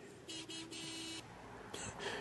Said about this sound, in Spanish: hablando, hablando de Tijuana, ¿no? Porque pues a mí me llegó a pasar varias veces, ¿no? Que se detiene el pinche taxi y nunca falta el carro de atrás. Que le pita, güey.